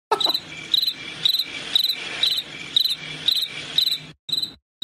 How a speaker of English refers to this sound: Apparently, that's what a cricket noise that'll, a cricket makes.